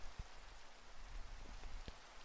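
Steady rain falls softly, a constant hiss with a few sharper drops tapping now and then. No voices, just the even wash of rainfall.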